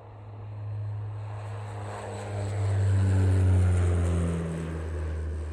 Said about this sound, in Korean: 매 시간 그곳으로 비행기가 날고